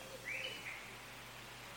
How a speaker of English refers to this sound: She spoke to the birds, the one whose call sounded like her delighted laugh, and wrapped notes around their legs in the hope that they would find him.